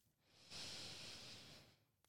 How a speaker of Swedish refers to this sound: Så ser vi om vi kan förlänga andetaget lite grann. Vi tar några djupare andetag. Andas in genom näsan.